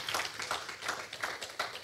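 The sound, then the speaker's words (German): A short burst of audience applause, a steady wash of many hands clapping at a moderate level, with no voices over it. “Ein Applaus.”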